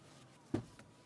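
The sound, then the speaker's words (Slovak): A single dull thump of an elbow knocking against a car door, fairly loud, followed by a faint softer knock a moment later in an otherwise quiet car interior. “Tento tupý zvuk bolo búchanie si lakťa o, o dvere.”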